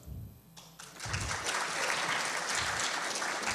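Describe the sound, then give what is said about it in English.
Audience applause swells up after a brief lull as listeners vote for the Northeast as the region worst at building trust, turning into a dense, steady wash of many hands clapping that stays loud and sustained to the end. “Applaud if you think they're, the, the people who are born and raised in the Northeast really don't learn much about trust.”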